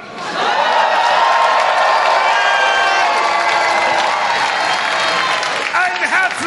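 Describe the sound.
A crowd bursts into loud, sustained applause mixed with cheering and shouting voices at a chess boxing event, greeting a lightweight fighter from the Chess Boxing Club Berlin before the evening's first bout, holding steady for about six seconds after a brief quiet start.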